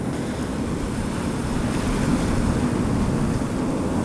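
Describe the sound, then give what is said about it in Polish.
Sea waves wash rhythmically against the beach at Kotka, empty out of season, in a steady, continuous rushing roar, deep and full, with no voices and no distinct individual breaks standing out over the four seconds. “Wypełniona jedynie szumem rytmicznie odbijających się fal.”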